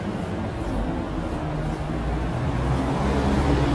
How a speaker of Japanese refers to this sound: っぱい車が通るね